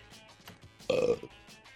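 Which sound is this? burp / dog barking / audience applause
burp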